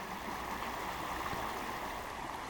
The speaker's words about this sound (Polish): No i teraz y, brzmi to tak, jakbyśmy się zamienili miejscami lub stali w innych miejscach ja i rzeka.